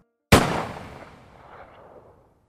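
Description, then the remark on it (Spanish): A single loud gunshot fired by a sheriff on a mountain cracks out sharply, followed by a long, fading reverberant tail that dies away over about two seconds. No voices are heard. “Entonces, sin siquiera voltear a verla, le disparó a Kimber en el pecho.”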